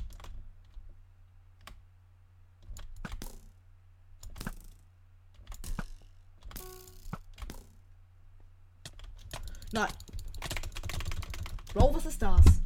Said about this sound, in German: Ich hoffe, man hört übrigens meine Tastaturgeräusche nicht zu laut.